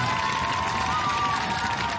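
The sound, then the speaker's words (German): A crowd cheers and applauds in a dense, steady roar lasting about two seconds, with a thin sustained whistle-like tone running through the noise. “Ich erwarte Beifall aus Freiburg, Mainz, Frankfurt oder sonst woher.”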